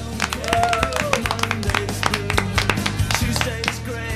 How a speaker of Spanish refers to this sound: Un aplauso, por favor.